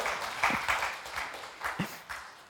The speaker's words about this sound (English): Big hand of applause for our AV team back there, MVPs of the morning.